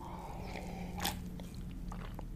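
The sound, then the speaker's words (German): A single brief, airy slurp of someone sipping coffee, followed by a few faint wet mouth clicks and swallowing sounds over a low steady hum, with no talking. “Noch ein Schlückchen Kaffee trinken.”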